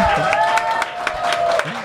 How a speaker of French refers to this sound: voilà des applaudissements.